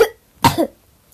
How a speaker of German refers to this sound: Oh Mann, ich habe gerade Husten.